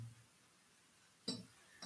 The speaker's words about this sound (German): Die Whiskyflasche hört sich leer an. Nee, das ist mir gerade der Korken ja runtergefallen.